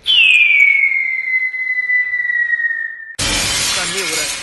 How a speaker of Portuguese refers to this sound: acabou de espatifar no chão.